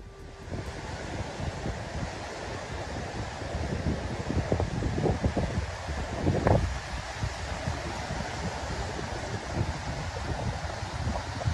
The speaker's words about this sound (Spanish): es un torrente de agua, un río gigantesco básicamente, que corre por en medio de una ciudad donde apenas hace unos días habían cientos, cientos de edificios. Vamos a escuchar un poquito.